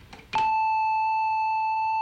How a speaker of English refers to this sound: Something in between those last two, and a very useful sound indeed, is something called triangular, and it's kind of a pointed sine wave.